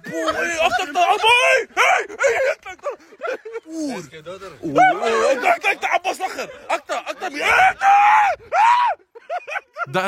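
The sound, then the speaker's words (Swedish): Someone screams in fright at a large snake in a string of shrill, wavering shrieks and frantic cries, loud, with brief pauses and other excited voices mixed in for about ten seconds. “…s reaktion, ja, den gjorde alltså kaos, den alla. är priceless, den är helt priceless Alltså hur du skrek!”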